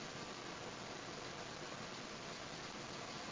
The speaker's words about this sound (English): the beautiful colorful landscape, the rushing waters of the pure crystalline water from the stream.